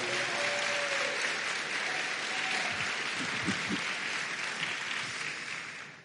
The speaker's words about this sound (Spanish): dele aplauso, dele palmas al Señor.